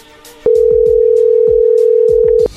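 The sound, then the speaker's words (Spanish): A loud, steady telephone dial tone sounds for about two seconds as a call is redialed after the other party hung up, a single unbroken mid-pitched hum, with soft low thumps and clicks underneath before it cuts off abruptly. “Colgó Choco. Márquenle otra vez.”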